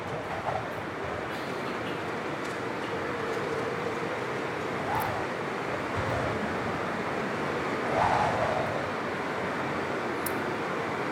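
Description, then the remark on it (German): A mighty rushing storm wind roars steadily and loudly throughout, a dense continuous whoosh that swells briefly near the end, with no voices present. “Ein mächtiges Rauschen, fast zurück.”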